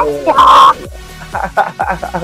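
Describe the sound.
A person imitates a parrot with one loud, strained, raspy squawk, followed by a few shorter chattering bird-like vocal bursts.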